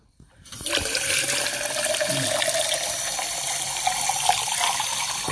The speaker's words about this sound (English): Dude, fill this up with water, dude.